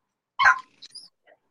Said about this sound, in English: So I'm about to hear my dogs go crazy. Sorry in advance.